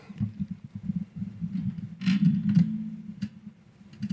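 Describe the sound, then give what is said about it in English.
A microphone boom arm shifts close to the mic, making a low rumbling, thumping handling noise with a few sharper scraping clicks midway. No one speaks. “That's the sound of my boom moving.”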